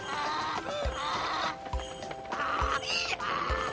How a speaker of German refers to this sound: Seine Kutsche wird von Eseln gezogen.